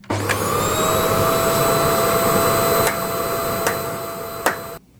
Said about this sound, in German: Plötzlich bricht der Himmel auf und saugt die drei hinauf wie ein Staubsauger.